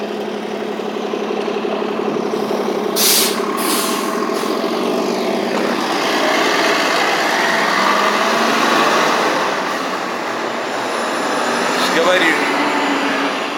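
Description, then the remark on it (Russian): A city bus engine idles on the street, a steady low diesel rumble with a droning hum that swells slightly midway, while someone talks over it. “Извиняюсь, что на фоне автобуса на улице говорю.”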